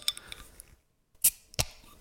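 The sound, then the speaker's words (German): A beer can being opened: faint metallic clicks and fiddling, a brief pause, then a sharp crack and a quick fizzy hiss followed by a second short burst of hiss. No talking. “So, jetzt ist meins auch offen.”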